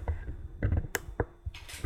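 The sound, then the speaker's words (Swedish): Several sharp clicks from a computer as someone clicks to lower something slightly, irregularly spaced over a couple of seconds, with a short rustling hiss near the end. Nobody is speaking. “klicka lite. Sänka aningen.”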